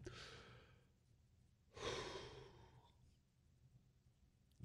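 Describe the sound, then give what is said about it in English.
Two slow, deep breaths: a long airy inhale, then a fuller breathy exhale fading out over a couple of seconds, with quiet stillness between and after. “Deep breathing is underrated.”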